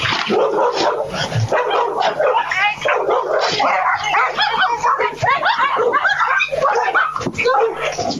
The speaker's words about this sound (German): Plötzlich taucht eine Bärenmama mit zwei Bärenkindern auf der Mauer auf. Sofort stürmen aus dem Haus mehrere Hunde und versuchen, die Bären mit lautem Gebell zu verjagen.